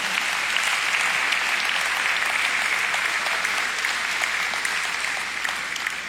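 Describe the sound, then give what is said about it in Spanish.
A large crowd applauds loudly and steadily for the Lord, a dense wash of clapping that holds at full strength for several seconds with no voices rising above it. “Vamos, dáselo al Señor, dáselo fuerte.”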